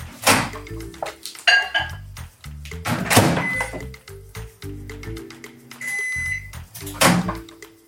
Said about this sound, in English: Let's place the chipotle oil mixture in the microwave and heat it up for one minute.